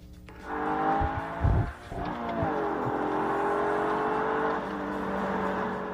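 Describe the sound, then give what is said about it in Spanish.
The engine of the car the host brought today revs loudly, its pitch rising and falling in a few throttle blips before settling into a steady, rumbling idle. No one speaks. “A ver si se oye nada más para que se dé una idea del coche que traigo el día de hoy.”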